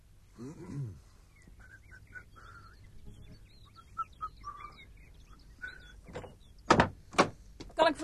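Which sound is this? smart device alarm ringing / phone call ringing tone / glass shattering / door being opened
door being opened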